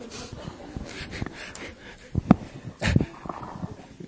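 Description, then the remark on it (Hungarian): A person on Mária Rádió imitates a dog with short, breathy snorts and huffs, building to two louder bark-like bursts near the end, separated by brief pauses. “Kutyává alakultam, és pitisztem nektek.”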